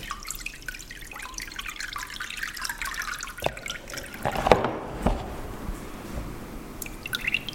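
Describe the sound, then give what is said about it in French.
Water drips and trickles steadily off wet textile-fibre paper pulp draining in a frame after being lifted from a basin of water, a patter of small splashes with a few sharper drops standing out. No one speaks. “Récupérer la pâte avec un, un cadre, la laisser s'égoutter, on la presse et une fois que c'est pressé et sec, on obtient une feuille.”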